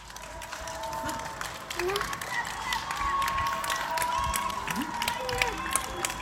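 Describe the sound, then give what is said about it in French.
A crowd applauds, with dense, steady clapping that carries on for several seconds at a moderate level, mixed with a murmur of voices and scattered sharper claps. “Applaudis, applaudis.”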